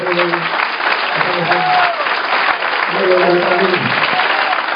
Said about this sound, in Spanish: Se fueron los glorias de los aleluya. ¿Tienen miedo de cuándo le pueden dar un fuerte aplauso a Cristo?